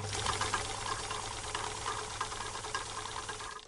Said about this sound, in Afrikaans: Toe ouma Jansen by haar huis kom, gaan sit sy by haar naaldwerkmasjien en sy begin werk en werk en werk.